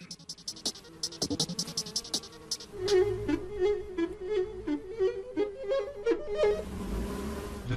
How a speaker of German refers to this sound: Mit einer speziellen Software isoliert er die unterschiedlichen Frequenzen der Bienen.